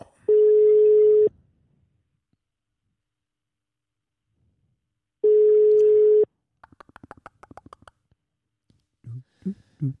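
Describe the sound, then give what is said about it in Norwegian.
A telephone ringback tone sounds while a call is being placed, twice, each steady beep about a second long with a long pause between, followed by a rapid burst of clicks and a few muffled thumps as the line connects. “Ok, da ringer vi”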